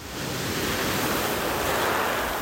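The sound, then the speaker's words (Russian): Steady roar of sea surf washing onto a very beautiful beach with white cliffs, grottoes and colourful pebbles in the Gargano area of northern Puglia, a dense continuous rush of waves that swells slightly toward the end, with some wind noise and no voices. “Записываю тебе дневничок на пляже сбылась мечта идиота, и мы на очень красивом пляже с белыми скалами, с щелями, гротами, разноцветными камушками, елями, какими-то разными породами, типами хвойных деревьев.”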